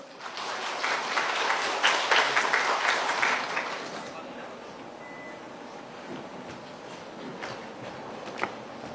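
An audience bursts into dense, loud applause for about four seconds, then it quickly fades to a low murmur with a few scattered claps.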